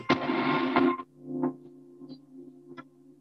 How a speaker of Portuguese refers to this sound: Uh, e eu, cara, eu gosto de usar assim, reverb para fazer ambiências, né? Tipo, eu pego lá e.